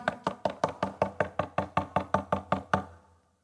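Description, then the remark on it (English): Steady, rapid knocking on a door, about fourteen firm, evenly spaced raps in a row, fairly loud, with no voices, ending with a brief fading ring. “I'm knocking.”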